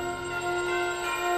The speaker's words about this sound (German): läuten die Weihnachtsglocken. Und das Böse wird durch diesen Klang besiegt.